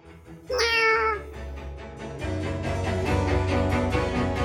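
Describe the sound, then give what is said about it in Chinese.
An all-black kitten with a tuft of white fur on its chest gives one high, drawn-out meow that rises and then falls, heard over a steady low background bed that grows fuller and busier after the meow ends. “有一只全身都是黑色、胸口却有一撮白毛的小猫咪，蹑手蹑脚的从房子走出来，慢慢的走到巫婆的脚边。”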